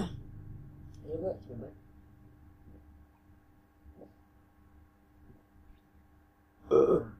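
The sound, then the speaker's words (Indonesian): Loud burps right against the microphone during an ASMR recording: a rumbling one early on, then quiet low murmuring, and a sharp, louder burp bursting out near the end. “nah, sendawa di depan mic dan lu dengerin dari jarak jauh dan tapping apakah sopan atau tidak sopan kayak begitu contohnya tadi”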